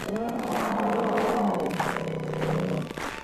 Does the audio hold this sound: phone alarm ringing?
no